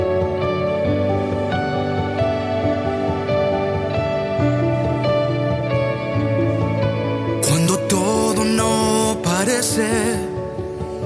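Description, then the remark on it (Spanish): A new worship-style song plays loudly, opening with sustained, layered chords; after about seven seconds crashing drums kick in and a wavering singing voice rises over the full band. “sí yo también, yo también quiero escuchar más música nueva.”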